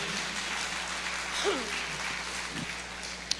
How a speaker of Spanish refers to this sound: Dele un aplauso de gloria porque eso se llama fe.